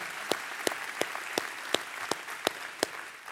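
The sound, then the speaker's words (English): A church audience applauds a man who shared his story, a dense wash of clapping with one set of sharp, evenly spaced claps standing out on a steady beat, with no talking. “Can you give it up for him one time?”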